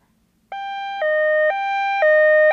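An ambulance siren wails in a two-tone hi-lo pattern, switching pitch about every half second, as an ambulance takes a newborn baby from an obstetrics clinic to a larger hospital's intensive care unit. It sounds loud, with a faint low rumble underneath and no one talking.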